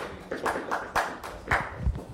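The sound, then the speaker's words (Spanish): Brief, scattered applause: a handful of sharp hand claps at an uneven rhythm, moderately loud, with no one speaking over them. “Oigan, aplausos a DT Design, ¿no?”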